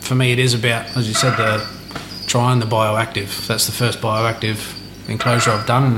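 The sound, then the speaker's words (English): A male frog calls steadily in the background, a faint, continuous trilling chirp running beneath a man speaking in the foreground throughout. “And you can hear the male calling in the background again.”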